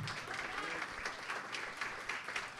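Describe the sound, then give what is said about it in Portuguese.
A church audience claps steadily and continuously for Jesus, a dense wash of applause at moderate volume, with faint voices blended in underneath. “Aplauda mais forte o Senhor Jesus.”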